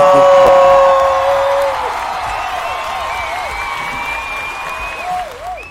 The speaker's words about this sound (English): Give him a hand, y'all. Woo!